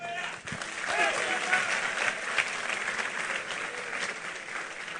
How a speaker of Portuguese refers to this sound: Os caras em pé, vamos aplaudir o Senhor.